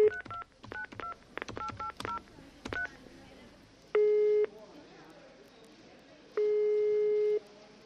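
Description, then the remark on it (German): A quick series of telephone keypad beeps is dialed to call the traffic police, followed by two long, steady ringing tones separated by a pause, each a loud, buzzy hum against a faint background hiss. “Zur Sicherheit rufe ich dort selber an.”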